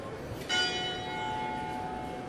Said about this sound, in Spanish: Bueno, suena la campana de la iglesia que tengo enfrente.